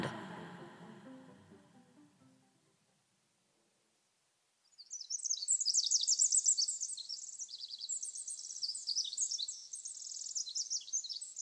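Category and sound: bird, birds chirping and singing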